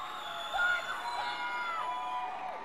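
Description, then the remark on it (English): A woman's high voice screams out a song request from a concert crowd, a few drawn-out shouts rising over a steady wash of crowd noise and cheering. “we get a young lady in the crowd who's screaming out for … before … hits”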